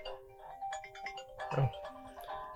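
mobile phone alarm ringing

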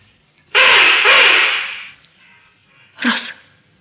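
magpies chattering

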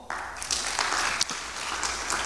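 audience applauding

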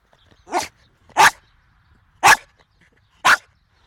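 dog barking

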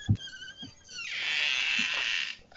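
door being opened

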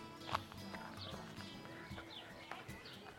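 swan taking off

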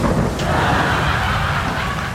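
thunder and rain

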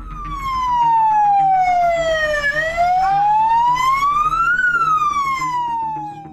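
fire engine siren

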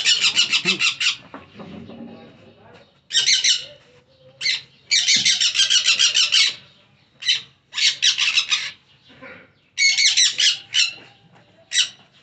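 parakeet squawking

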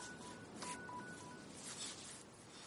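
mobile phone ringing

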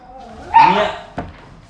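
dog barking

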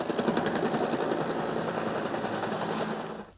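helicopter flying overhead

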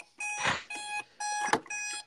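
alarm clock beeping

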